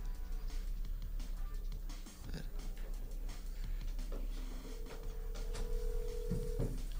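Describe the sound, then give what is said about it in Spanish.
A phone line rings on an outgoing call: one steady electronic ringback tone lasting about two seconds, with faint voices and clatter in the background. “Ah, bueno, le puedo marcar.”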